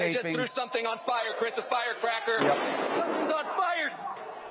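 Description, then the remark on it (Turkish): Protesters at an anti-racism demonstration in Atlanta throw fireworks at the police-guarded CNN building; a sharp, loud burst of bangs sounds amid shouting and a crowd of voices that carry on before and after the blasts. “İçeri girmeye çalışan göstericiler bir grup polisin koruduğu binaya önce taş sonra havai fişek attı.”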